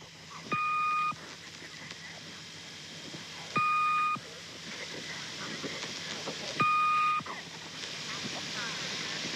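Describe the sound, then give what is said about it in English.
A shortwave numbers station recording: three evenly spaced, steady electronic tones, each about half a second long, ring out over a constant bed of hissing radio static. “there's the Swedish Rhapsody. Yep, I have that queued up”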